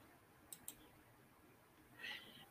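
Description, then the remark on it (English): A woman clicks a computer mouse: two quick, crisp clicks close together, like a double-click, followed a moment later by a brief soft rustle. “And while she's clicking on that, click on the like button, please.”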